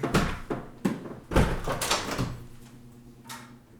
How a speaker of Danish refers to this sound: Altså, hvis vi er heldige, er det min radiator. Hvis vi er uheldige, er det noget, de også lavede udenfor i går. Altså, det, man kan ikke høre det, når vi snakker, men...